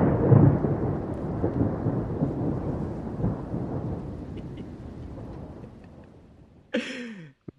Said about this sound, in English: we were doing sound check. All of a sudden, I hear this fucking thunder, very realistic thunderstorm sound.